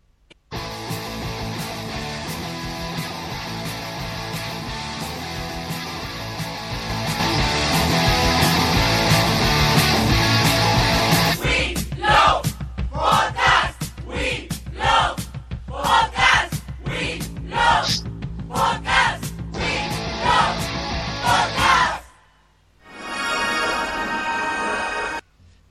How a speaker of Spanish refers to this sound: nos despedimos con la canción del Will of Podcast